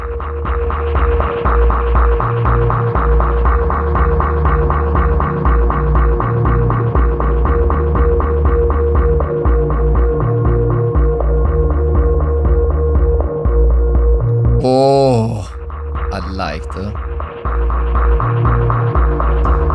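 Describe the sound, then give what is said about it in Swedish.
Ambient music built on a deep, pulsing bass and a muffled, steady rhythm under a sustained droning texture, with a brief sweeping glitch near the end. “Liksom en mufflad rytm som knappt går att höra ibland och en ganska markant bas som kommer in och ger liksom en hel del rytm.”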